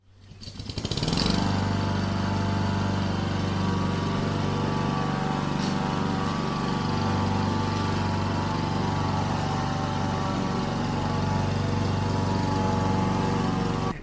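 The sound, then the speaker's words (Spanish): A lawn mower passing over starts up after a brief moment and keeps running with a loud, steady droning hum and buzzing overtones, holding an even pitch throughout with no voices. “los que no sois de Patreon habréis escuchado una corta césped que ha andado por encima y los de Patreon habréis escuchado lo que hemos comentado.”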